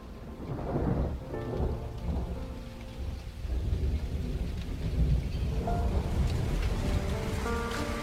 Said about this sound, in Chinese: 今天下雨了，忽然想穿过几个城市去看看你。